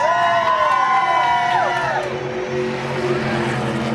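Thousands of race fans cheer and roar steadily for four seconds at the Richard Petty Driving Experience in Orlando, Florida, while a high-pitched engine whine sweeps past, its pitch dropping sharply partway through.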